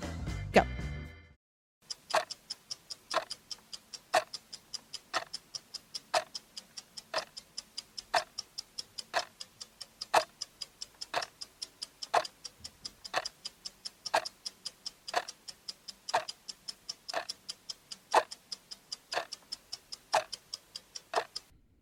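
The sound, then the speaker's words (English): A countdown timer set for 20 seconds during a Harry Potter quiz question ticks steadily, about thirty crisp, evenly spaced clicks over twenty seconds, each sharp and bright, following a brief buzzy sound at the start. Nobody speaks. “Okay, I'm going to set my timer for 20 seconds.”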